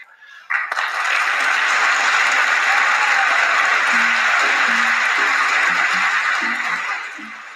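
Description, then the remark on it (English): A crowd breaks into sustained applause during a speech, after a line that the coalition to defeat ISIS has liberated nearly all its territory; it starts abruptly and holds steady, loud and dense, for several seconds before easing slightly at the end; faint low tones peek through underneath. “To clap or not to clap?”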